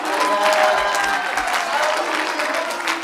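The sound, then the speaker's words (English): An audience claps loudly and steadily throughout, a dense, continuous wash of applause with some raised voices shouting mixed in, especially near the start. “I'm going to move on to my message, but if you're hungering for a move of the Holy Ghost, I want you to clap your hands and shout with everything you got.”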